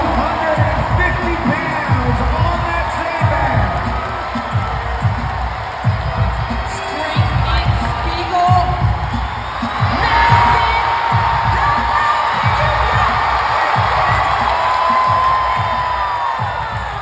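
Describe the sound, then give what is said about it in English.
A large crowd cheers and roars loudly and continuously during the women's tiebreakers at a competition, with a steady, rhythmic low thumping beat pounding underneath the whole time and a few higher shouts rising over the din. “And just in case we were not entertained enough, some of those tiebreakers between the women, well, the crowd was going off.”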